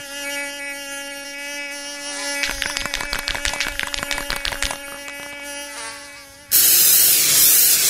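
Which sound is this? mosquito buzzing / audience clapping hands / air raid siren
mosquito buzzing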